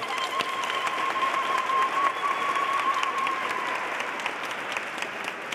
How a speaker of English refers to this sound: Go ahead, guys. Clap your hands like you are alive.